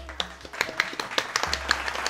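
A small group claps for about two seconds to welcome a guest on the Costelão Show, the sharp hand claps coming quickly and irregularly at a moderate level over a low steady hum, with no talking.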